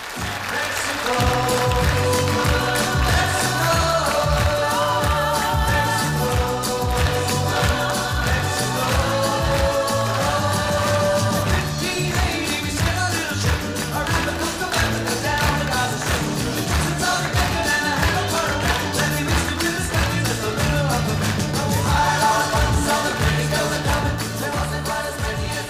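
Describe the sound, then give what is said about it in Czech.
The original 1972 recording of a pop song by a vocal group plays at a steady, loud level throughout, with a driving bass line, rhythmic backing and layered singing voices. “započneme ukázkou, dáme si tedy eh, originál od skupiny, já nevím, jak se to čte.”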